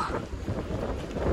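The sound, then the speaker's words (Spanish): Strong wind gusts buffet the microphone over a steady low rumble out on the open sea, about 200 metres from an island, as the sea grows choppy, with loud, continuous blustery noise and no voices. “Ya reció el viento.”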